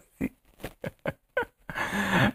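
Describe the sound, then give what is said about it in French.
On Christmas Day, December 25, a dog barks in a quick series of five short, sharp yaps, then lets out one longer, drawn-out bark. Moderately loud, with no talking over it. “Il y a un chien qui jappe.”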